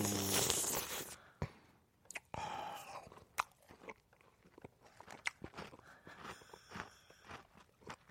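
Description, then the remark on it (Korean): Wet, crunchy chewing of patbingsu, Korean shaved ice with red beans and pineapple inside, from a patbingsu shop; a steady run of soft crunches and squelchy bites with a louder clatter at the start, no talking. “제가 한번 먹어보도록 하겠습니다. 팥을 살짝 얹어서”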